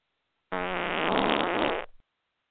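A loud, buzzy fart sound effect blares for about a second and a half, sputtering and fluttering before trailing off abruptly, with no voices over it.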